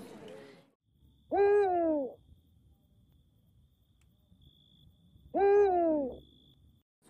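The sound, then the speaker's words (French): Two deep, resonant hoots of a Eurasian eagle-owl ring out about four seconds apart, each clear, over a faint, steady night-time insect hum; the owl's very low, hoarse song heard at night in the wild. “Et le Grand-Duc, moi, c'est de super souvenirs parce que il a un chant très grave.”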